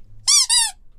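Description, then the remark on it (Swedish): Two quick, high-pitched squeaks in a row, like a squeezed rubber toy, used as a spoiler-warning sound effect, loud with nothing else around them. “Men den piper här och då”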